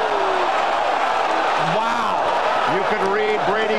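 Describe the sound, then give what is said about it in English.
A large crowd of Jets fans at the 2007 NFL Draft roars steadily after the Miami Dolphins select Ted Ginn with the ninth pick, with individual voices rising into drawn-out shouts and jeers above the dense wash of noise throughout. “You could even hear it from the fans here. The Jet fans love it.”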